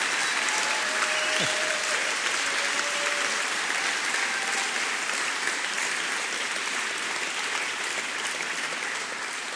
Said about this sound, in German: Gut, ich wollte eigentlich nicht nur meine Oma aufstehen lassen, sondern können mal alle aufstehen und sich bemerkbar machen, die über 60 sind, die dieser Generation angehören und auch für euch einen fetten Applaus.